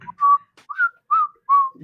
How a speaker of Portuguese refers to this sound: Ah, ah, ele assobiou o cachorro aí.